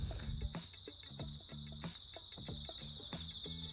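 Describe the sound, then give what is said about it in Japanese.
A dense chorus of bell crickets (suzumushi) chirps steadily outdoors along a walking course near a home in a rural area of Shimonoseki, Yamaguchi Prefecture, Japan: a continuous high shimmering trill layered with quieter, irregular low taps and rustles, no voices present. “今ねあのずっと歩いてるんですよ家の近くというかあのウォーキングコースをですねでねスズムシの合唱すごい聞こえるかなラジオで”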